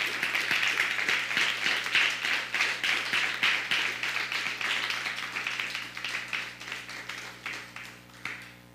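Steady crowd applause with dense, crisp clapping that gradually thins and fades toward the end, finishing with a few scattered claps. A low steady hum sits underneath.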